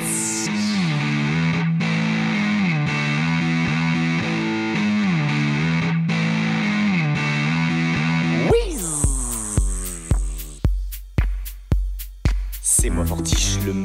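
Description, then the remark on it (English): A distorted electric guitar sustains a thick chord with a wavering, effects-laden tone, then switches to a series of sharp, punchy struck chords with a steady rhythm and loud attacks. “Maintenant, vous allez écouter l'accord, on dit particulier, pourquoi va on ensorcelé de la guitare”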